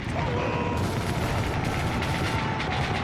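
Dense, continuous gunfire roars without a break during a charge against Japanese soldiers, a loud wash of overlapping shots and rumbling blasts like a battle in full swing, with faint shouting buried underneath.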